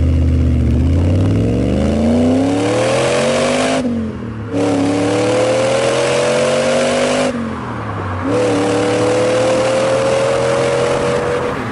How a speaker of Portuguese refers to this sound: Tá claro que isso aí é a Lancia Tema 832, né? Que é uma, tem uma matéria nossa lá no Flatout dela, que é uma Lancia, né, na plataforma tipo 4, que era é, é uma, era uma joint venture inicialmente só da Lancia e da, da Saab